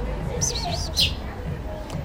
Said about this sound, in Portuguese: A passarinhada tá animada aqui.